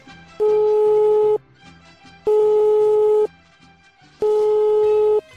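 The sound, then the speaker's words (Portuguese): Outgoing call ringing tone as someone phones a friend: three loud, steady mid-pitched tones, each about a second long and separated by short pauses, with faint background murmur between them. “Eu vou dar uma ligada aqui para uma amiga nossa.”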